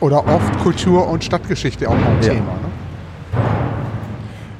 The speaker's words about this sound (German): Ja, man hört schon, hier ist auch eine, eine, eine Baustelle nebenan und ähm, ich denke mal, auch darauf gehen dann die Grabungsmaßnahmen ähm, hier zurück.